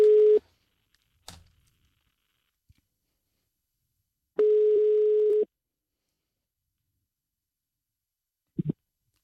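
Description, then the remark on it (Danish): A telephone ringing tone sounds on the line while a call is placed: two steady electronic beeps, the second lasting about a second, with silent gaps between and a faint click near the end. “Lad os ringe en anden person op”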